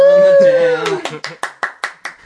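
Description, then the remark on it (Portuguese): A sustained sung or voiced tone fades out, followed by a steady series of about seven sharp, loud hand claps in an even rhythm. “Epá, não, não ah, as palmas.”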